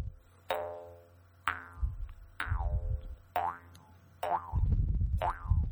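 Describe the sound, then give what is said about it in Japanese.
A jaw harp held in the player's mouth twangs six times in a steady rhythm, each pluck ringing with a bright, wobbling boing as the mouth shapes and amplifies the tone, fairly loud with a low droning hum underneath. “012「口琴」とはなんぞや”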